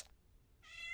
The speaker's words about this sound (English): I'm just hoping that he stops meowing for a few minutes so I can get this done